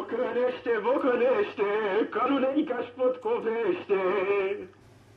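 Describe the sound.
A man sings in Romanian on an old, somewhat boxy recording, his voice steady and melodic with wavering held notes for about five seconds before it fades to faint hiss.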